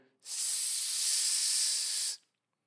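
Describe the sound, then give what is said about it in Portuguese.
A voice imitates a hissing gas leak: one steady, breathy hiss lasting about two seconds, fairly loud, with no talking. “Num vazamento de gás, por exemplo, você escuta um som como”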